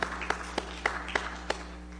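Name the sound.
audience applause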